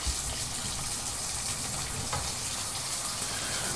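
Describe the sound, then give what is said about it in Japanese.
Steady, dense sizzling of pork belly frying in a frying pan on a portable gas stove at home, a continuous crackling hiss with faint pops scattered through it, fairly quiet and even throughout, with no voices. “携帯ガスコンロとフライパンで飯を食ったり酒を飲み食いしながら雑談です。”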